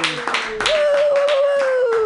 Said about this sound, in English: clap it all together, everybody.